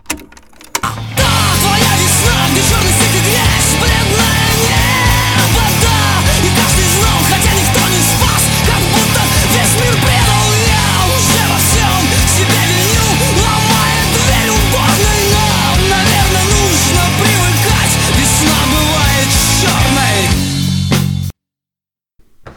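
A full recorded song plays loudly and steadily for about twenty seconds, with dense, layered instrumentation and a driving rhythm, then stops abruptly into silence.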